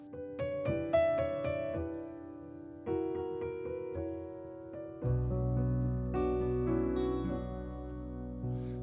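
An instrumental song intro with plucked, rhythmic chords, then a fuller, sustained arrangement with deep bass joining halfway through. Loud, with no voices.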